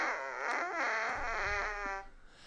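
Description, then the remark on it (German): A single electronic fart sound effect from a button toy, loud, with a wobbly pitched buzz stretching for about two seconds before cutting off into quiet room noise. “Das Furzi-Pups und ich muss das ah, Furzi-Pups kurz. Kurz mal ins Mikro zeigen.”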